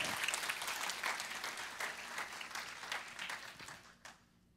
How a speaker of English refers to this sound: Why don't you guys just give these guys a hand of applause? You can go.